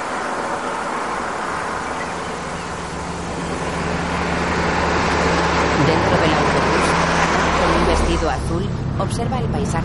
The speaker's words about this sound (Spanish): De día y bajo un intenso sol, un autobús blanco circula por una carretera poco transitada que cruza un árido campo.